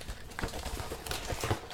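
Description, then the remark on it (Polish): Rustling and crinkling of a plastic bag mixed with light clicks and taps as a smooth router box marked LTE Ultra is handled and opened and the router is taken out of its plastic bag, uneven and busy, with no voices. “I w środku otwieramy, otwieramy pudełko, mamy w ym, folii, y, w worku foliowym mamy router”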